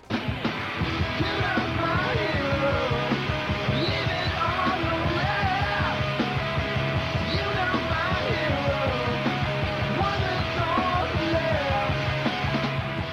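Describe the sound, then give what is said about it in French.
A rough rock song demo plays loud and steady throughout, with pounding drums driving a dense wall of distorted guitars and a singing voice riding on top. “En tout cas, il en reste une démo que je vous propose d'écouter.”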